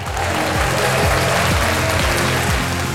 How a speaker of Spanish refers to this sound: Esto se merece una ovación.